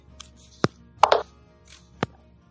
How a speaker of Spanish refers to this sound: He recolocado el móvil y lo he puesto a cargar, para que no me dé más problemas de ruido.